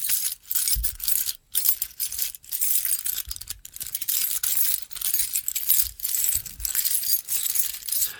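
Continuous bright metallic jingling of a knight's chainmail, made of metal links, shifting and clinking together as he moves, steady and dense with rhythmic surges, fairly loud, no voices.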